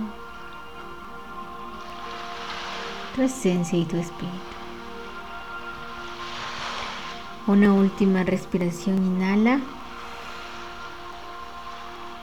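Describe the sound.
Gentle sea waves at sunset swell and recede in a slow, steady rhythm, a soft hiss rising and fading beneath a calm voice speaking in short phrases, guiding a meditation.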